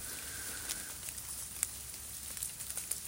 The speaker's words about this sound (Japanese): えー、雨ですね久しぶりの雨でまあ12月なんですけどあの気温は結構高いんじゃないかな寒くはないです